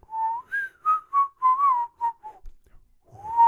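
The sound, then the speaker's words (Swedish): A person whistles an imitation of a church-bell chime: about eight clear notes stepping mostly downward, a short pause, then one more rising whistled note begins. No talking. “But it's supposed to sound like a church bell.”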